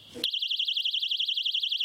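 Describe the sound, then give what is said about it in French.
A piercing personal safety alarm, carried by restaurant staff in Nantes, France, kicks in abruptly and wails continuously, its pitch warbling rapidly up and down in a steady pulsing pattern, loud. “Alarme, petites bombe tolérées de gel de poivre pour déstabiliser en fait l'agresseur et partir.”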